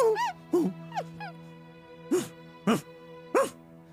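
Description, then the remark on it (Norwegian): Wolves whimpering with high, wavering whines, then barking into the air with three short, sharp barks spaced about half a second apart, moderately loud over a low steady hum. “Bjeffer ut i lufta og snur prompte med halen mellom beina og stikker av.”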